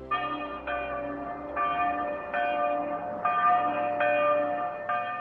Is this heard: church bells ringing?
yes